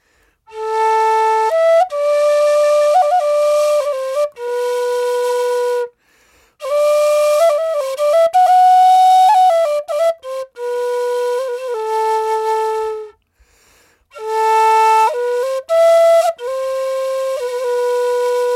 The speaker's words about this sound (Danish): Og der er jo dømt øh, finske skove og ferskvandssøer og, øh, og helletusser og det hele med det samme. Ja. Hvordan kan det være, det er det, vi tænker på med det samme, når vi hører sådan en fløjte og ikke afrikanske savanner?